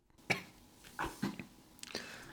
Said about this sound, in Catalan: gairebé explota intentant aguantar-se la tos.